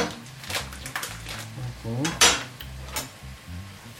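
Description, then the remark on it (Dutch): Cherry tomato halves and courgette cubes being stirred in a frying pan: a spoon scrapes and clinks against the pan in quick, irregular bursts, with one sharper clatter midway and a low murmur behind. “En die moeten nog e-, dat moet nog even bakken.”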